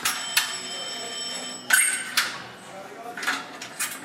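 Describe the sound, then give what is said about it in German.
An old telephone bell rings in a sustained metallic trill on the first floor above a workshop courtyard, then stops, followed by a few sharp clinks and knocks against a quiet background. “In der ersten Etage klingelt ein Telefon.”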